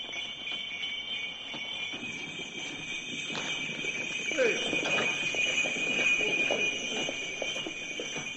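Hooves of a horse drawing an open sleigh clip-clop in a steady rhythm, under a continuous high, bright ringing and a low rumbling background.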